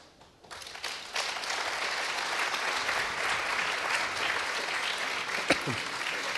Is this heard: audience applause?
yes